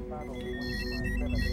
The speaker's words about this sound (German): Etwas später ertönt ein Alarm auf seiner Konsole. Weitere Warnleuchten beginnen zu blinken.